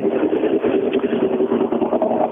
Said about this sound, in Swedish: en av Sveriges mest aggressiva tomgångar är det här.